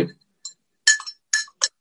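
A spoon stirs Activis powder into a glass of water, producing a series of bright, ringing clinks at an irregular pace, with short pauses between the taps and no voices.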